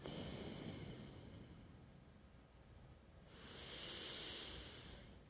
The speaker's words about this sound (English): Um, and then doing n- nostril breathing, alternate nostril breathing, breathing in through one side, closing off this side and exhaling out the other nostril.